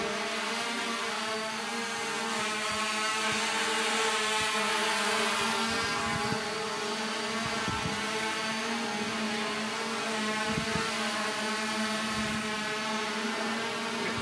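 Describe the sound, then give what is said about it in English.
A Falcon multirotor camera drone with eight propellers and a front camera flies with a steady, high-pitched buzzing whine from its propellers, holding a constant loud drone throughout with no talking. “It has eight propellers, uh, and it has a camera in the front to capture, you know, pictures, videos, and we have direct feed from the data that that drone is capturing.”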